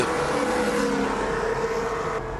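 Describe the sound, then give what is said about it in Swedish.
A Formula 1 race car engine at the Japanese Grand Prix screams at high revs, a loud, steady whine over a broad roar that holds for a couple of seconds, with no voices. “Klippet här kommer inte överraskande från Viasat Motor. Japans Grand Prix avgjordes i helgen som gick.”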